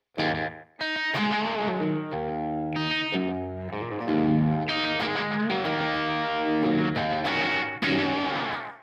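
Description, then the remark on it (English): Distorted electric guitar chords through an amp with heavy slapback delay and no reverb, the quick repeats blurring into a reverb-like ambience; loud and steady throughout with no voices. “That's way more slap than I would normally use, but you can tell it is kind of acting as a reverb there a little bit.”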